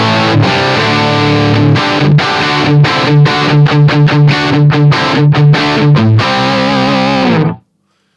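A heavily distorted electric guitar played through an amplifier on its Brown mode, with more distortion and volume turned up, plays a loud, crunchy riff with rhythmic chugging chords and short gaps between strums, ending abruptly with a brief ring-out, no voices present.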